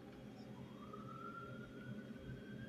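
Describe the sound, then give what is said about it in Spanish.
An ambulance siren wails, its tone sliding slowly upward over a steady rumble of background noise, with no one speaking. “levántate, ya que pasó el ruido, perdón. Levántate, la ambulancia.”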